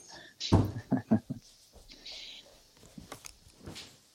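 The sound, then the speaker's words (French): A loud thud of an office door shutting, followed by a few quick footsteps and softer knocks, then quiet shuffling movement with faint rustles. “je vais aller fermer la porte de mon bureau parce que mon con de chien est rentré et a laissé un courant d'air”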